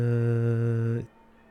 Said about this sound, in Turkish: kilise çanları çalıyor. Kusura bakmayın arkada ses var. Bugün Corpus Christi. Ben bahsetmedim şu an Polonya'da yaşıyorum. Ee, ondan dolayı Corpus Christi olduğu için bugün e, böyle sesler olur